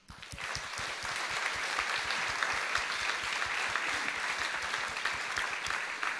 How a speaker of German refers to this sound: begrüßt sie mit einem großen Applaus, denn es ist so eine, also es erfordert Mut, sich hier hinzustellen und was zu erzählen.